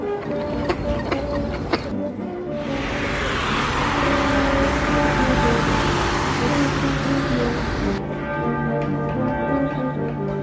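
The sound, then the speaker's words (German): A busy city street in Braunschweig, recorded with a microphone by a sound artist from England who records how cities sound: steady traffic noise with a car surging past in the middle, while bells ring in clear tonal strikes throughout, heard alone without voices. “er beschäftigt sich eben damit, wie Städte weltweit klingen.”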